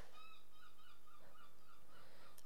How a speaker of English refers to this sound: Why are there always fucking seagulls out when I'm trying to record a podcast?